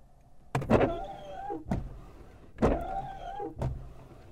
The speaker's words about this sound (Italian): Con questa leva invece possiamo attivare i tergicristalli.